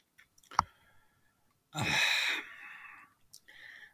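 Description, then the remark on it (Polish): A deep breath drawn in sharply and held for under a second, preceded by a small mouth click and followed by a quieter, shorter breath; no one speaks. “powiem tak, oddech wziąłem, bo dlatego, że nie mam w tej chwili przed sobą e, tej tabeli z tymi wynikami.”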